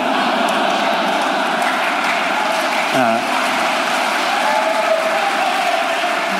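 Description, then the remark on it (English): Steady, dense audience applause fills the whole stretch, a constant wash of clapping and crowd noise at an even loudness, with a single brief voice murmuring partway through. “well, before you applaud, maybe I didn't mean that quite the way you took it.”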